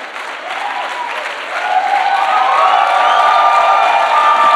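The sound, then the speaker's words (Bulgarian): An audience at an evening sermon breaks into dense applause that swells after a moment and keeps going steadily, with a few cheers rising over the clapping. “Погледни човек от тебе, тупни го и му кажи, що не пляскаш, бе?”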